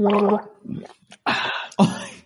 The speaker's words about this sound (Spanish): Voy a beber. Bebe un poquito de agua, querido.